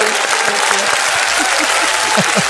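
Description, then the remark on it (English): A show audience claps steadily at the end of the show, a dense, loud wash of many hands, with some indistinct voices and a few brief shouts faintly rising beneath the applause. “And of course, a big round of applause for the timeless”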